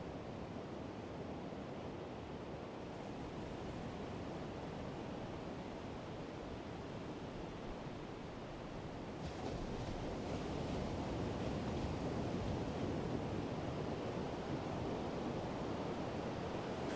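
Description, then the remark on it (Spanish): Pacific Ocean waves wash steadily in a broad, continuous roar of surf, with a slight swell in intensity around the midpoint; no voices, just the sea. “Están aquí conversando con ella y mientras, mientras estas conversaciones tienen lugar se escucha el mar de fondo, el mar del Pacífico.”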